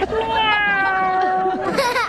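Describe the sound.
A person imitates a cat's ordinary meow, the call of a single cat not seeking a mate, with a long, steady, fairly loud vocal tone that bends upward at the end, drawn out for about two seconds.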